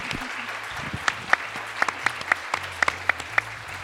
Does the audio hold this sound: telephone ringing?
no